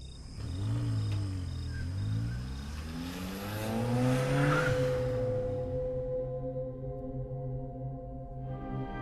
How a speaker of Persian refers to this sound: یه چند دقیقه تو بیابون رانندگی کردیم تا افتادیم تو همون جاده کرج به سمت تهران